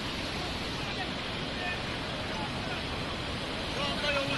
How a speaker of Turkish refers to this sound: Burası Çağlayan Deresi. Dere, dere taştı. Menfezler uçtu. Yol gidiyor tamamen.